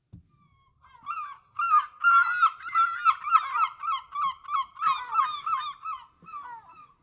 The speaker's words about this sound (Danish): Det var Clarks mågevenner fra Liverpool.